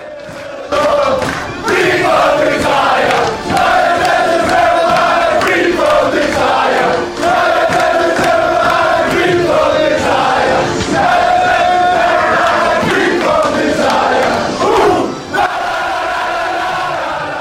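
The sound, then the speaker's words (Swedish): The Brighton football team chants and cheers loudly together in an echoing locker room after a 1-1 draw with Manchester City secured a Europa League place, voices rising in a rhythmic, repeated chant with shouting and clapping throughout. “Och då låter det så här i omklädningsrummet.”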